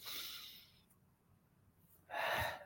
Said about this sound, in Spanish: Un maestro, discípulo del doctor de la Ferrer, decía, por lo menos una respiración consciente, una.